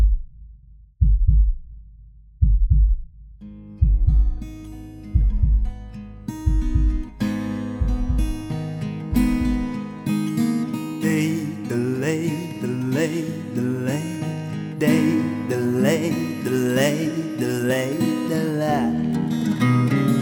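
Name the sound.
heartbeat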